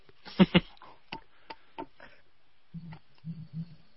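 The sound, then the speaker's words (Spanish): A ticking clock is imitated with sharp mouth clicks: a quick pair, then a few more spaced unevenly, followed by short low humming sounds. The clicks are clear. “Tic tac.”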